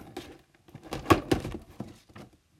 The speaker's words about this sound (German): Also, als erstes, ich habe das Papier schon abgemacht, aber ich habe noch nicht reingeguckt. Das war, da war so Sticker noch auf dem Papier und so, genau. Dann mache ich mal die Kiste auf.